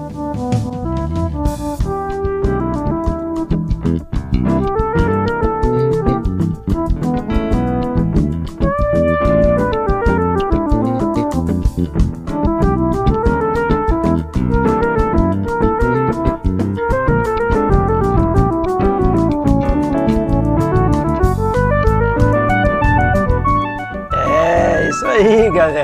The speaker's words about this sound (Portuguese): E tem o solo de teclado do meu amigo …. Então vamos ver o solo de teclado do … também, gente.